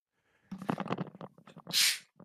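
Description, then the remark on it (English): A single loud sneeze: a quick voiced build-up of sharp breaths ending in a harsh, hissing burst, with a faint short sound trailing after it. “Bless you.”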